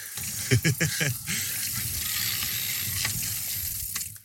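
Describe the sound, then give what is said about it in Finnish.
A city bike being ridden: a few quick clacks and ratcheting ticks at first, then a steady, fairly loud hiss of rolling noise that carries on evenly before fading at the end. “Ensimmäinen podcast maailmassa, joka äänittää viime kaupunkipyörien suloista ääntä.”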